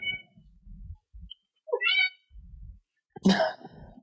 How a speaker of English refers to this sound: Is that a cat? uh, yeah, that's that's my incredibly needy cat in the background.